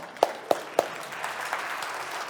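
An audience applauding, opening with three sharp, evenly spaced claps before settling into a steady, fairly soft patter of many hands clapping. No voices are heard.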